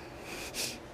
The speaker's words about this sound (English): pardon me, that was my dog sneezing. she, I guess, wanted to be in this podcast this, this time.